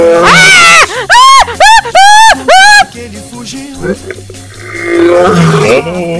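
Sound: lion roaring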